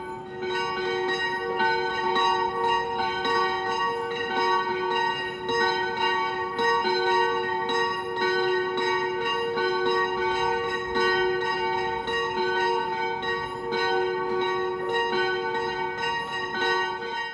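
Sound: church bells ringing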